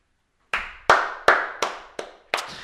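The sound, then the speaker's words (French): Six soft hand claps late at night, in a slightly uneven rhythm, each a crisp smack that quickly fades, with no voices around them. “On va applaudir trop fort parce qu'il est euh, tard le soir.”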